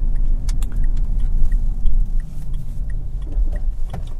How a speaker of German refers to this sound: Auf der anderen Seite gefällt euch ja auch vielleicht einfach mal das Blinkergeräusch oder ihr hört diesen Podcast abends beim Einschlafen und das äh, Surren des Motors gefällt euch irgendwie.